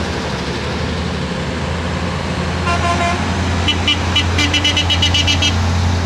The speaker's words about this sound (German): Ja, laut ist er. Ein MB-Truck, das ist sehr schön.